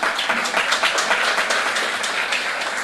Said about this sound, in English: So that closes the five papers that we had. So let us have a round of applause for the speakers for two things.